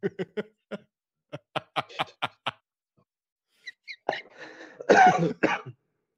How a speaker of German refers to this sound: ah ja, siehst der Huster, der Huster ist genau der von einem Nichtraucher.